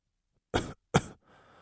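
Two harsh, forceful coughs from a man in a villa in quick succession, followed by a softer, raspy exhale as if clearing the throat; no talking.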